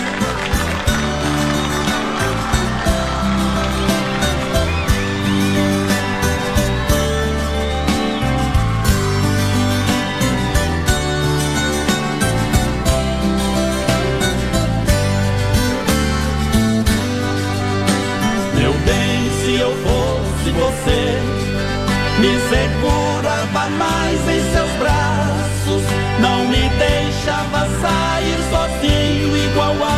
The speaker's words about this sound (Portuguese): Vamos, vamos tocar uma moda aí. Uma modinha pra nós aliviar aqui, ó.